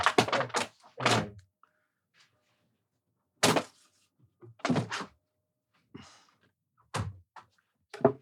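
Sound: window being shut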